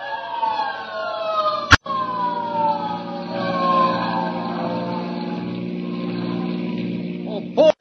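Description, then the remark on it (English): A hook and ladder fire truck on the street sounds its siren, wailing with tones sliding slowly downward over a steady, droning engine rumble, broken by a sharp click early on and another near the end. “Hey, there's a hook and ladder on the street right now.”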